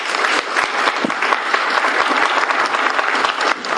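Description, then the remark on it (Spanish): Sustained audience applause, a dense steady patter of many hands clapping at fairly even loudness for nearly four seconds, with no voices heard above it. “y por favor un aplauso si son tan amables.”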